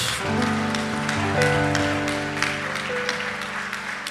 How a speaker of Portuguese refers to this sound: Você pode dar uma linda salva de palmas ao nosso Senhor? Bem forte, bem forte, é para o nosso Deus.